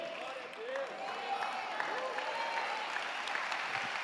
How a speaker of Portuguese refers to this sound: Aplauda ao Senhor.